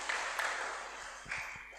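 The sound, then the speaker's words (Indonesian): A dense wash of hands clapping fills the whole stretch, steady and fairly loud, with a few sharper individual claps standing out near the end and no voices. “Nah, banyak orang bilang itu kalau tepuk tangan itu bisa menyehatkan.”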